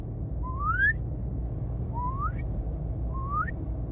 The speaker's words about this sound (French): Et aussi, dernier point pour l'aspiration, c'est que j'ai l'impression que je peux avoir plus de puissance. Alors qu'en soufflant, j'arrive même pas en fait à, à, siffler fort en soufflant. J'arrive pas. Alors qu'en aspirant, c'est facile.